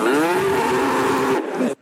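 dairy cows mooing

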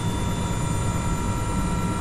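helicopter in flight

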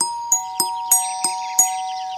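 doorbell ringing

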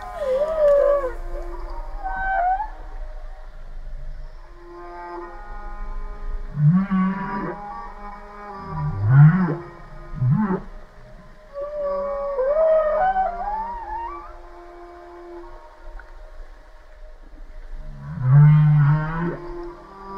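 humpback whale song

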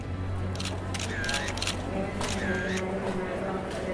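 camera shutter clicks

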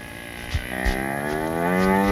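cow mooing

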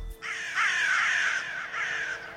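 crow cawing

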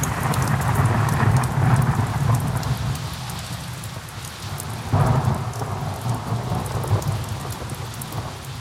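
rain falling

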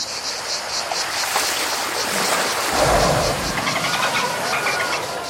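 cicadas chirping

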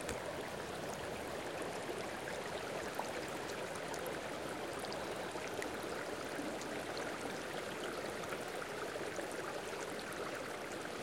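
murmuring river stream

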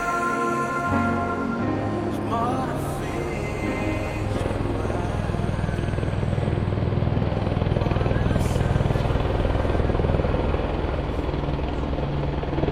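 helicopter flying overhead

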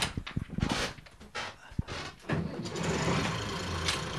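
boat engine starting up

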